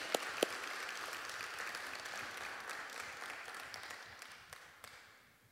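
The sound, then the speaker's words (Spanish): A crowd bursts into steady, sustained applause at a Spanish-language Sunday church service, applauding the Lord for the volunteers who serve. It is a dense wash of many hands clapping, with a few sharper claps standing out, gradually thinning and fading toward the end. “y quiero que usted me acompañe a darle un aplauso al Señor por todos estos hermanos que trabajan para el servicio en español.”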